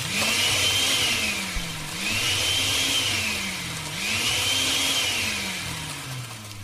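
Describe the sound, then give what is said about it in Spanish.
A kitchen blender at home whirs loudly and continuously, its motor pitch rising and falling in slow waves about every two seconds, with no voices. “Cuquita, a ver si estás en la casa, prende la licuadora”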